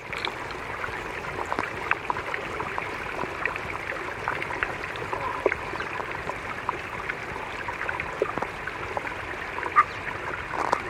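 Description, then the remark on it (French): Glacier ice vibrating, recorded underwater with a hydrophone in glaciers around Grenoble, France, during a summer: a steady crackling fizz dotted with sharp clicks and pops, continuous throughout, with no voices. “Mais les glaciers, on peut aussi les entendre vibrer.”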